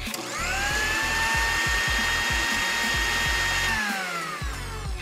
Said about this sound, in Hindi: अब इस मिक्सचर को हम डाल देते हैं मिक्सर में इसे बिल्कुल बारीक पीस लेते हैं